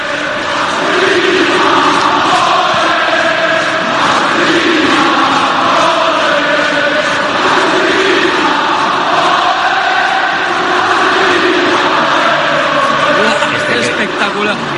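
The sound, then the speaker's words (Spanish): A massive football stadium crowd at San Mamés roars continuously, a loud, dense wall of voices with swelling chants rising and falling throughout, sustained at full volume from start to finish. “vamos a volver a poner los goles y vamos a poner el sonido de, San Mamés porque, porque yo creo que ha sido absolutamente espectacular.”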